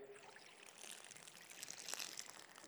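Water pours steadily into a container, a continuous splashing, gurgling stream with brief bright spatters that builds slightly toward the end. It is fairly quiet, with no voices.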